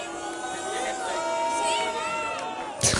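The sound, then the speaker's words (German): A crowd cheers and claps, sending applause to the Oranienplatz in Kreuzberg, in a steady, dense wash of noise with overlapping voices calling out, ending in a brief louder burst of clapping. “Ja, dann würde ich sagen, dann zeigen wir uns hier als äh, faire Sportsfreunde und schicken einen zwar sauren, aber dennoch hörbaren Applaus äh, an den Oranienplatz in Kreuzberg, bitte an dieser Stelle.”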